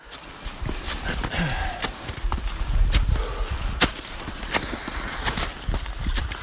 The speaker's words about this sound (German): Ja, also da, da, man hört da schon, ähm, dass es echt anstrengend ist und man hört auch, wie die Steigeisen so in den, in den Schnee, also in die oberste Schicht des Gletschers, der, die aus Schnee bestand, so reinschlagen